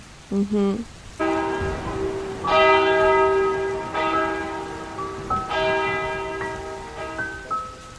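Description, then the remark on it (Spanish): Church bells ring out at a distance, several strokes arriving about every second and a half, their resonant tones overlapping and slowly fading over a soft, rain-like background hiss. “Escucho las campanas de la iglesia a lo lejos, llorando.”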